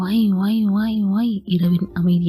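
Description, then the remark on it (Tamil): A voice mimics a police vehicle siren heard in the distance, with a rising and falling wail for over a second, fairly loud, then speech follows. “தூரத்தில் சன்னமாய் ஒரு சத்தம் சைரன் சத்தம் அது என்ன சத்தம் அட கடவுளே சித்தம் காவல்படை வண்டியின் சத்தம் அது”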